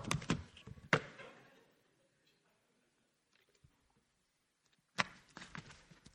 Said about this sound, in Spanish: Mientras que piensa lo que es contienda, bebo agua.